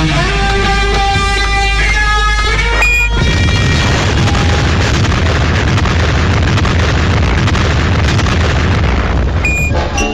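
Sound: atomic bomb explosion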